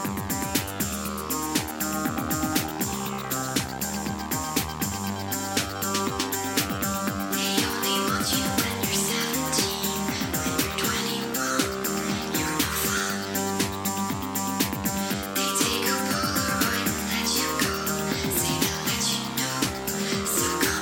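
An electropop song plays continuously at full volume, with a steady pulsing synth beat, layered synthesizer chords and a driving rhythm throughout, no talking over it.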